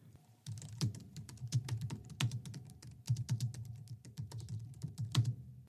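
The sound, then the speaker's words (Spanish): Typing on a keyboard with a mechanical-like but softer clack, a steady run of keystrokes at a moderate, even pace, with no voices. “Y el sonido oh, me recuerda un pelín al teclado mecánico, obviamente sin ser tan ruidoso.”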